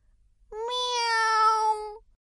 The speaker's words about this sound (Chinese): 今天我们小知识的主角就是萌萌哒喵喵叫的猫。喵